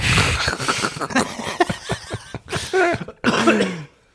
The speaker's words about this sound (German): Du, du hast einen kleinen Husten, hä? Ja, das ist einer.